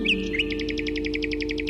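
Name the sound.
nightingale singing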